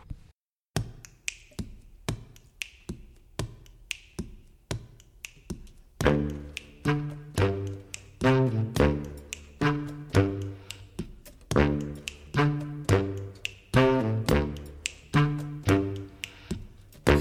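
A song opens with crisp, evenly spaced finger snaps, then a fuller band of harmonic instruments joins in, the snaps continuing as a steady rhythmic pulse under the music.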